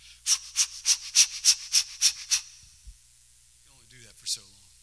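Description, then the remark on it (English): A person demonstrates rapid, rhythmic labor breathing, as done alongside a woman having contractions: about nine short, sharp breaths in a steady pattern, fairly loud, followed by a brief pause and a short vocal sound. “She started breathing. Contractions come. I start breathing with her.”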